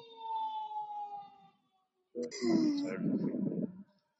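Emergency sirens pass by: a steady wailing tone drifts slightly lower and fades, then after a brief gap a louder, harsher siren burst with a rough, horn-like edge cuts in.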